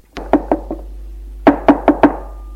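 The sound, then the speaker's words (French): Two quick sets of four firm knocks on a wooden front door of a house, loud, with a short pause between the sets and a steady low hum underneath. No one speaks. “Là, cette fois, c'est à la porte d'entrée que l'on frappe.”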